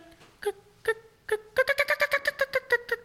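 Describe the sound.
An imitated turkey hen's fly-down cackle, the call a hen makes when flying down from a tree: three or four spaced, nasal yelps that suddenly break into a quick, excited run of about a dozen sharp notes, fairly loud, with no talking.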